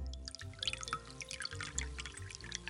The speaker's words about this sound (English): Let's give him some time, I pleaded, and then we both shrugged our shoulders and turned our attention back to the slow and taunting drip of the coffee machine.